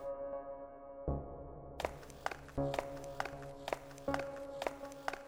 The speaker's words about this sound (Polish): Po ułamku sekundy do naszych uszu dobiegło echo szybkich kroków. Wstaliśmy. Jeden członek drugiej grupy biegł do nas bez hełmu i broni.